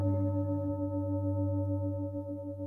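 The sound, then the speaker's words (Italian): A deep metal bell hums with a steady, sustained ring, its layered tones holding evenly throughout without fading, fairly loud, with no voices present. “E che persone, ognuno alla loro casa, potessero sentire il suono generato da quella campana tramite una cosa chiamata microfono che non sapeva neanche che poteva esistere.”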